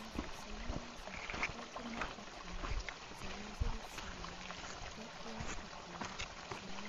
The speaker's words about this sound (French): Rivière.